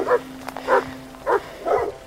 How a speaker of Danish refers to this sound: Han kan høre hundepatruljerne glamme i det fjerne.